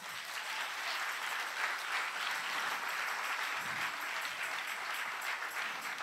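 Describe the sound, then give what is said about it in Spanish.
Sustained applause from an audience, a dense steady wash of many hands clapping at once, fairly loud and unbroken for the full six seconds with no voices standing out. “Si ese es el aplauso de papá.”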